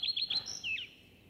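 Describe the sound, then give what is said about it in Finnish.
A common redstart sings a brief phrase: a few quick high chirps, then a thin sustained whistle and a falling, slurred note, clear and unaccompanied by voices. “mitä sanot leppälinnun haikeasta säkeistä?”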